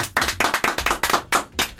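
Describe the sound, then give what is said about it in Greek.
About seven sharp hand claps in a steady, fairly quick rhythm, clear with no talking over them, like one person clapping along. “παρακαλώ ένα χειροκρότημα.”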